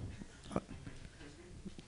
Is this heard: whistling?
no